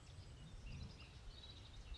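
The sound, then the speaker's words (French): Faint birds chirp and twitter in scattered bursts over a low outdoor rumble, recorded outdoors amid the sounds of nature, with no one speaking. “Écoutez les bruits, cet enregistrement est fait à l'extérieur, donc il y a des bruits, il y a le chant des oiseaux, le chant de la nature, parfois le chant du vent qui viennent se mêler à ma voix.”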